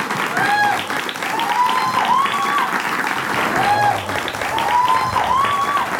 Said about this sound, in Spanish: Fuerte aplauso, ¿eh?